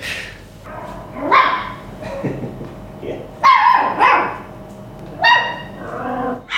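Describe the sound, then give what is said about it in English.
Puppies yip and bark in short, high-pitched bursts, mixed with small rumbling growls and whimpers, the noises coming in irregular clusters over several seconds. “I hope they do start getting a little bit vocal here because it would be very cute listening to them sort of growl at a toy”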